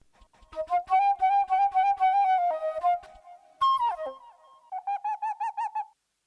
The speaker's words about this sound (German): Das war übrigens, was war das für ein Tier? Konntest du es erkennen? War das eine Eule? Es ist tatsächlich eine Eule. Echt, ich habe ja? immer am Anfang gedacht, als ich das gehört habe, es ist vielleicht auch äh, ein Äffchen oder so, aber nee,